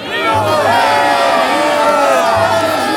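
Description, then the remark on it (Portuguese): A large crowd following Jesus shouts and cheers joyfully, many voices overlapping in a dense, sustained roar of excited calls and whoops that stays loud throughout. “Agora uma multidão seguia Jesus. Eles estavam tão alegres que começaram a gritar.”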